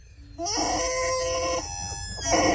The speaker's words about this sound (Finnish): Toi on vähän kuin niinku sikaa pantaa, se on ihan kauhea ääni. Tää tulee lelukukosta. Lelukukosta tulee tää.